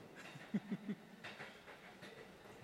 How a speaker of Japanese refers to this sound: 窓を開けてね外の、ね、真っ暗な、えー、山の中、ね、木曽路走りながら満天の星を見て、ね、この列車の走行音